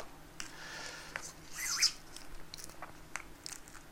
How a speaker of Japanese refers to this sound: さてではでは食事にお食事タイムもぐもぐタイム動物園みたいでしょ